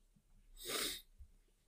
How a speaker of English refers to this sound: You're sniffling. Are you okay?